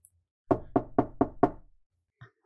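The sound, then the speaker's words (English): Five firm knocks on a door at about five o'clock in the morning as a wake-up call, in a quick, even rhythm, loud, followed by a brief faint sound after a pause. “Uh, but early in the morning, uh, about five o'clock, uh, you all get knocks on your door.”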